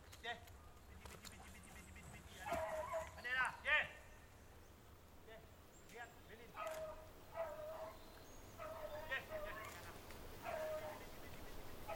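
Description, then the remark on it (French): A pack of hunting dogs barks and yips in scattered bursts, a tight cluster early on and then a longer run of overlapping calls, against steady outdoor background noise. “je vais arriver avec les chiens.”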